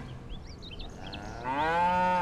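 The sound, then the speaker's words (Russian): A cow, brought salt to lick, gives one long, loud moo starting about halfway through, rich and harmonic, rising then trailing off. Before it, faint high bird chirps flutter over a quiet outdoor background. “Немного погодя, вынес Алдар корове соль полезать, ну, чтоб здоровее было.”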